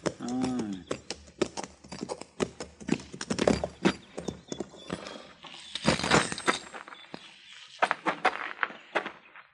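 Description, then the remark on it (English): Horse hooves clip-clop on hard ground in a corral in an uneven, shuffling rhythm, fairly loud, as a boy feeds the horses, with a man's voice briefly speaking at the start. “Well, then who's that boy in the corral yonder feeding his horses?”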